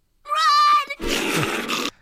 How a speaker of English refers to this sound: there's a little bit of uh, the mountain lion attacking here